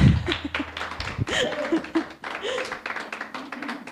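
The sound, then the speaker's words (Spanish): A church audience breaks into steady applause for the Lord, many hands clapping together in a dense, continuous wash for several seconds, with voices and a bit of laughter mixed in underneath. “¿Por qué no le da un aplauso al Señor y así sirve que despierta?”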